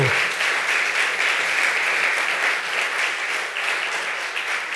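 An audience bursts into sustained applause for the Lord, a dense, steady wash of many hands clapping at full volume for several seconds with no voices breaking through.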